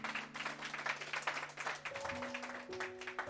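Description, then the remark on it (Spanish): An audience breaks into sustained, dense applause for the Lord, many hands clapping at once in a steady wash, with a held organ or keyboard tone sounding underneath and shifting pitch partway through. “Pero dale tu mejor aplauso.”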